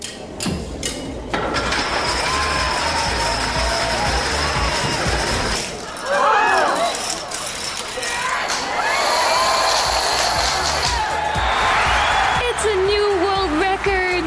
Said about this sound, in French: Le record est battu, les dominos tombent à l'heure prévue et l'événement est mené à son terme.